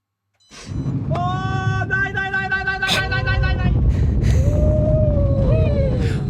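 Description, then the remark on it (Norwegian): Long, high-pitched screams of riders, including politician Abid Raja, rise and waver over a steady, loud mechanical rumble of a roller coaster with an overhead track and dangling legs that runs forward and backward; several voices overlap at first, then one sustained wail trails off as the ride roars on. “Vi kan bare høre hvordan det høres ut når eh, banen er i gang.”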